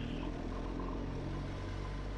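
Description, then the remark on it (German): A motorcycle engine in enduro mode runs steadily off-road in the mountains, a loud, continuous low rumble with a dense mechanical drone and no clear rise or fall in revs. No one speaks. “Da liegt das Motorrad nämlich ein bisschen schöner am Gas.”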